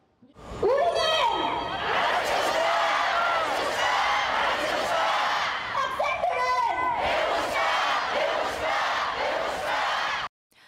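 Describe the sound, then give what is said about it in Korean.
Tens of thousands of teachers dressed in black, sitting in the street at Gwanghwamun in Seoul, shout in unison outdoors, loud and sustained, with repeated chant phrases rising in bursts over a dense wash of many voices for about ten seconds, demanding the truth about a teacher's death and restored teachers' rights. “검은 옷을 입고 서희초 교사 사건의 진실 규명과 교권 회복을 위한 대책을 위해 목소리를 높였습니다.”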